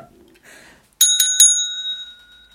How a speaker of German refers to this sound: Alter, ich wollte mit der scheiß Klingel anfangen